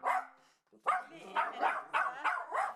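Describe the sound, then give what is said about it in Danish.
A dog, one of two dogs named Lili and Albi, barks: one drawn-out bark, a brief pause, then a quick run of sharp, yappy barks in a steady rhythm. “To hunde, Lili og Albi, holdt dem med selskab.”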